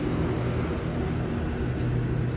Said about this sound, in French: Attendez, il y a plein de voitures là, c'est un peu relou.